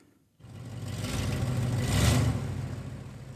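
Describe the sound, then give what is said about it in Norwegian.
The big old engine of a rust-red 1978 Pontiac station wagon starts up and runs with a deep, rumbling idle, swelling slightly louder midway as if revved, with no voices, at a car scrapyard in Oslo, Norway, where the car is being delivered for scrapping. “Skjalg Årnes har kjørt den rustrøde Pontiac stasjonsvogna si til Stokstads bilopphuggeri i Oslo.”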